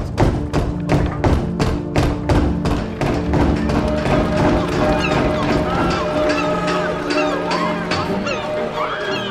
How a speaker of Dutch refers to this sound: Laat zijn rechterhand de jonge onderkoopman Francis Pelsaert nog maar even op de deur van het VOC-kantoor bonzen.